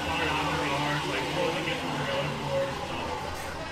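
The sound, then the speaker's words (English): A blender whirs steadily for a few seconds while making a piña colada, a loud, continuous grinding roar with a faint motor whine, unbroken. “Yeah, There's that pina colada being made.”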